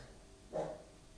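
A single short dog bark rings out midway through, somewhat muffled, set against a quiet, steady background hum with no speech.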